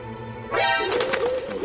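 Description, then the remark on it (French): A pigeon coos, a short burst of throaty, warbling calls that swell suddenly and then trail off, with no voices around it. “Si ce crétin de pigeon ne m'avait pas reculé dessus pour signifier que je marchais sur la queue, mon terreau n'aurait rien entendu.”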